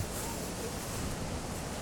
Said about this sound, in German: Diese Atmosphäre ist gerade ganz schön mit dem Wind. Es ist nicht zu kalt. Na, jetzt hat der Wind auch ein bisschen abgeflaut. Gerade eben war schon steife Brise, wie man im Norden sagt.